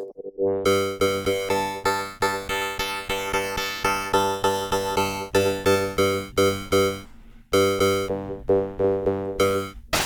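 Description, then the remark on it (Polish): Bright, buzzy chiptune synth tones from a pocket synthesizer play a steady run of notes, their pitch wobbling and sweeping under modulation, with a few short pauses between phrases; loud, no voices. “modulacja potrafi zmienić dużo, bo tak. Na przykład ja mam takie coś. I patrz, to od razu zupełnie brzmi inaczej.”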